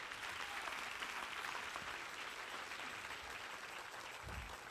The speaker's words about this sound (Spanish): Si ese es el aplauso, dáselo mejor.